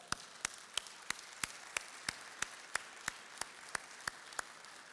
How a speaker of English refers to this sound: Let's applaud for that.